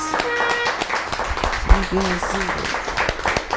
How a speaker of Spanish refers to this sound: Ahora sí, un fuerte aplauso a todas las naciones.